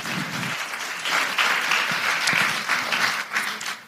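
A crowd claps steadily, a dense wash of many hands that stays loud for the full few seconds with slight swells, with no voices rising above it.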